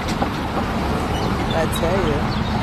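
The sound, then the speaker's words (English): Steady, dense morning traffic roars along Fifth Avenue, a continuous loud rumble with indistinct voices mixed in and a brief wavering tone rising above the din; an ambulance is heard in the distance and a school bus is passing. “Now I'm on Fifth Avenue. And here we have our sounds.”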